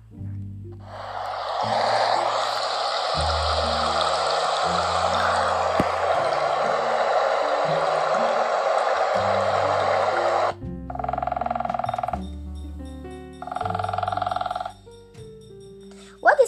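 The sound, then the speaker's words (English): Steady, fairly loud water trickling and babbling around rocks and stones in a clear stream for about ten seconds, layered over soft music with slow low notes; the music then continues with brief tonal chimes. “The water trickles around rocks and stones.”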